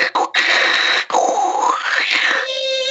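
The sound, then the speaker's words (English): A voice imitates a dial-up modem connecting: harsh buzzing bursts, then a warbling, sweeping screech that rises and falls before settling into a steady, noisy hiss, loud throughout. “You're trying to connect to the internet.”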